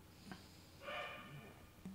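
A faint dog barks once, a short tonal yelp rising over quiet background noise, with a couple of soft clicks before and after.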